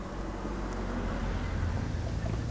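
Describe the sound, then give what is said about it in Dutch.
A car's low engine rumble holds steady on a quiet street in the Moluccan neighbourhood of Bovensmilde, a continuous murmur with no clear rise or fade. No one speaks. “Op dit moment, als ik hier rondloop in de Molukse wijk op weg naar een bijzonder monument, is het rustig. Af en toe een auto.”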